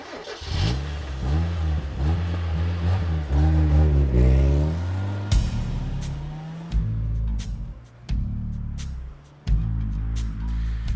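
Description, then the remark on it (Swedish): A petrol car engine cranks and catches, then revs up with rising and falling pitch before settling into a steady running rumble, with a few sharp clicks near the end and no talking. “En modern bensinmotor är en hisnande utstuderad mekanisk byggsats som består av hundratals rörliga delar som behöver kylas, smörjas och bytas ut med jämna mellanrum”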